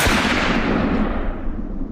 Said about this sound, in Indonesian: Dengan fitur heavy barrel, senjata memiliki daya tahan yang lebih terhadap panas akibat tembakan terus-menerus, senapan serbu ini disukai negara-negara Afrika dan dipesan oleh sejumlah negara di ASEAN.